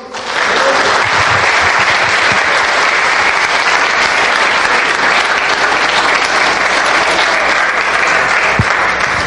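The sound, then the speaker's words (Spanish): Sustained applause from a large audience, given to the Lord, a dense, steady clatter of many hands clapping at an even loudness for the whole stretch, with no voices standing out. “¿Puede usted darle un aplauso al Señor?”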